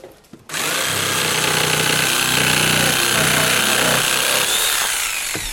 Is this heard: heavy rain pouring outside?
no